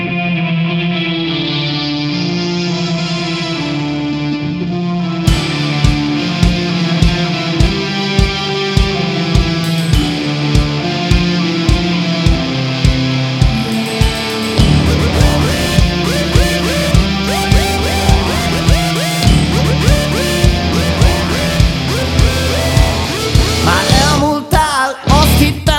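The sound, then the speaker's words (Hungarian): The instrumental intro of a Hungarian-language pop song opens on sustained, effect-laden synth chords, then a steady drum beat kicks in and the arrangement grows fuller and busier, loud and upfront with no vocals yet. “viszont a dalt azt annál inkább, úgyhogy lepörgetem, aztán innen folytatjuk majd mindjárt a beszélgetést.”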